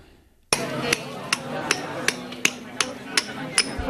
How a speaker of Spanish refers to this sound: Este es el sonido de un escultor que a golpe de martillo, de cincel y de otra serie de herramientas pues va dando forma a un lavado en piedra de gres rojo, una de las tradiciones que Turismo del Algarve quiere poner en valor